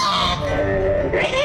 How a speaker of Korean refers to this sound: 어딘가 불편하게 소리를 내며 불안해하고 있는 거위 무슨 일이 있던 걸까요? 거인은 어딘가 불편해 보입니다.